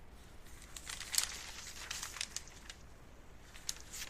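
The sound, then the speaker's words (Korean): Newspaper pages rustle and crinkle softly as someone reading out news articles fumbles to turn a page that won't turn, with a sharper crackle near the start and scattered light paper rustles afterward, with no talking. “아이씨 종이가 왜 안 넘어가노?”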